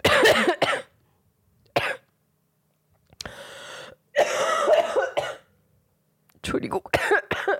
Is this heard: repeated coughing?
yes